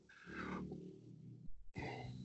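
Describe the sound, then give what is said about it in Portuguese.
A person yawns, a drawn-out voiced groan that trails off into a breathy exhale, followed by a short catch of breath and another brief vocal sound. “Não, é que eu bocejei, desculpa aí.”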